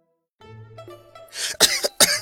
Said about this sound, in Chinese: 正在喝第三杯水的宝四直接呛咳了一下。